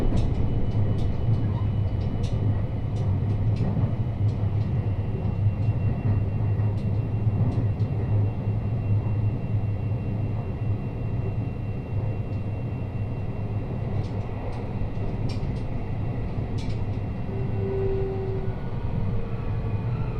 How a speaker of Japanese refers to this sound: 扉から離れてお待ちください。お出口は左側、一番乗り場の到着です。